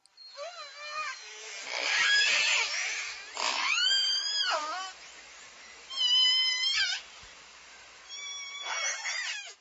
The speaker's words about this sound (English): This episode, shh, the orcas are talking.